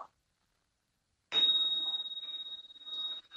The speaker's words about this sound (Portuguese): Então, eu vou pedir novamente desculpas para você e eu vou tocar o sino para que isso fique ainda mais especial, tá bom?